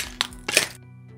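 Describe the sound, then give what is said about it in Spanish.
A mobile phone slips from someone's hand and shatters on metro escalator steps while changing to line 3: a sharp crack, then a louder, longer crunch with glassy, tinkling debris, before a faint low hum takes over. “Se escucha un ruido brusco, torpe, lleno de cristales rotos.”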